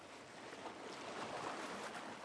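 Gentle ocean waves wash softly and continuously against a beach, a faint, steady hiss of water with no distinct breaks and no voices.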